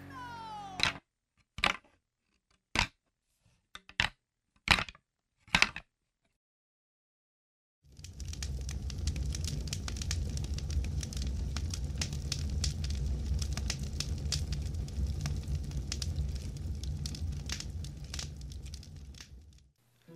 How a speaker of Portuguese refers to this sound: Malu deixa as compras no chão próximo, pega alguns gravetos e joga outros fora. Experimente esse aqui. Ela sugere, só para ficar um tempinho por ali e descobrir mais alguma coisa, ajudando Mika a acender o fogo.